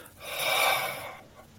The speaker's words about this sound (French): vous poussez de l'air en chaleur, c'est une air qui vient d'intérieur, puis là, vous allez pouvoir faire des, techniques de combat.